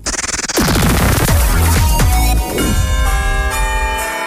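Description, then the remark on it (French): Loud church bells, Easter bells, clang and ring together in a dense, chaotic jangle, with a brief rapid flutter at the start and bright tones lingering and shimmering toward the end. No voices. “Les cloches de Pâques sont passées sur Ultrason”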